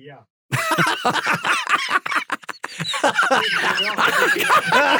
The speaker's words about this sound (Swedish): hostar ungefär som Stolle-Jocke gjorde i fattigstugan i Lönneberga. Det kommer upp någon gulbrun tuberkelkräm som faktiskt råkar hamna på min Skogaholmslimpa med fart.